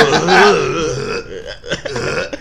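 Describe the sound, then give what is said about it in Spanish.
A person retches, gags and vomits loudly, a long guttural heave followed by several shorter, choppy retching bursts. “yo cuando me quiero concentrar pongo sonidos de vomitar en YouTube”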